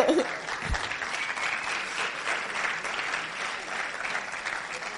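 Steady audience applause fills the whole stretch, a dense crackle of many hands clapping at an even, sustained level with no voices standing out.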